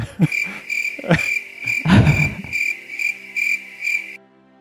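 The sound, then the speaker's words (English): Crickets chirp in a steady, shrill, pulsing trill for about four seconds, with a few dull low thumps near the start, before the sound cuts off abruptly. “Should insert crickets here.”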